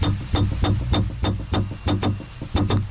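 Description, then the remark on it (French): An unhappy pearlfish's territorial defence sounds as it guards its territory: a steady series of sharp knocking pulses, about three per second, over a low droning hum, fairly loud with no talking. “c'est un poisson pas content qui euh, garde son, territoire.”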